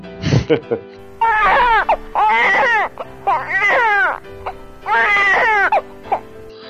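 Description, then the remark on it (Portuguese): A voice fakes loud, wailing sobs: four drawn-out, quavering cries in quick succession, opening with a short laugh. “Chorar, não vou ficar chorando aqui não.”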